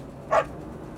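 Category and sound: animal, small dog barking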